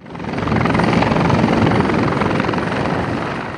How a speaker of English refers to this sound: Skaha Lake being used as a water source for helicopters fighting the fire.